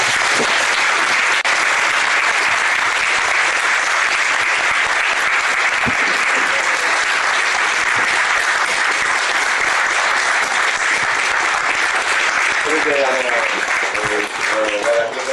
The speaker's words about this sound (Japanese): 皆さん、あの、拍手をお願いします。